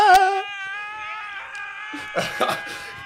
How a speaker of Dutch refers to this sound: ja, wij stonden ook alleen maar te schreeuwen.